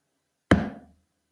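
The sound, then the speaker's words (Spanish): A single heavy thud of a head knocking against a wall, presented as a scientism-minded person banging their head against the wall: one sharp, dull impact with a deep body that rings briefly and fades within half a second, with no voices. “Ese golpe que escucharon es un cientificista dándose la cabeza contra la pared.”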